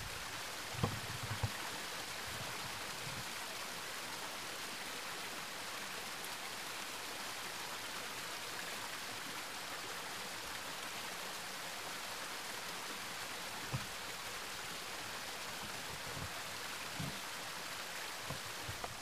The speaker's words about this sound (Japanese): 今あの滝のところに来てましてね小さな小さな絹糸の滝っていうんですがしばらくちょっと音を聞いてみましょう